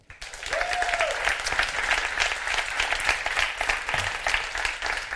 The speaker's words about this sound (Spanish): Eso merece un gran aplauso.